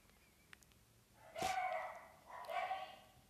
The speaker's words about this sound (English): and you you listen the dogs you listen my sister yelling at them for barking